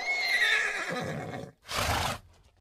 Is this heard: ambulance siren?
no